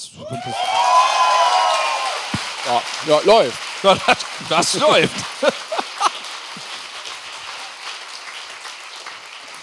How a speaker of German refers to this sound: Wir klatschen, es tut weh. ja, klatschen so weiter. Ähm, weißt du, we weißt du? Ah, dann klatscht doch mal einfach.